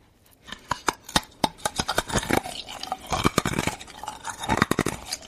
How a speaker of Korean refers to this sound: 얼음 씹어먹는 소리예요 치아가 좋은 모양이군요.